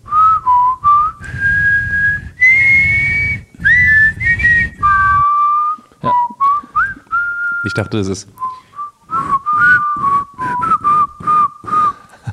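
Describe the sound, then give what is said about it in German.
Someone whistles a TV series theme tune, a clear, steady melody of sustained and bending notes with short pauses, interrupted once by a few quick spoken words. “Kannst du die Melodie noch pfeifen?”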